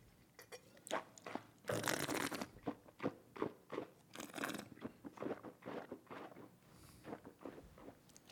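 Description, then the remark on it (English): Mouth noises of a dry wine being swished and slurped around the mouth while tasting, with irregular wet clicks and a couple of longer airy slurps drawn through the lips, no talking. “Move it around, slosh it around, make noise.”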